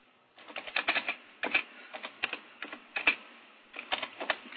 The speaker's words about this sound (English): I'm not very good at uh, at talking and typing, and, and I'm such a wonderful multitasker usually.